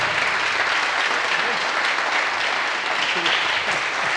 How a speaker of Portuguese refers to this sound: Eu, com a maior alegria no coração, quero pedir que você se coloque de pé e dê um aplauso bem bonito pela vida do pastor Jabes.